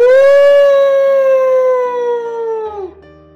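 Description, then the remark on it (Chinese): A single long wolf howl, a loud, steady mid-pitched tone held for nearly three seconds before sliding downward and fading out. No voices accompany it. “突然，一只狼从背后跳了出来”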